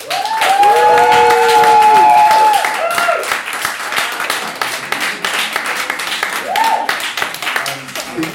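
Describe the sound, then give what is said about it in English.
A studio audience claps steadily for several seconds to show support for a policy, a dense wash of hand claps, with rising whoops and cheers riding over it at the start and another brief cheer near the end. “Um, the, the elaborate clapometer that we've got in the studio has gone to eight, I think.”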